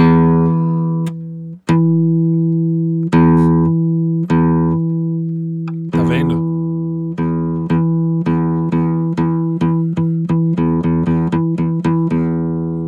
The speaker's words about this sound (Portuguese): junto da nota fundamental, por exemplo, desse Mi aqui, que é a corda, que é a primeira corda solta do violão, junto dele tem várias outras notinhas. Você não ouve muito bem porque a frequência mais alta é a fundamental, mas junto com isso aqui, ó,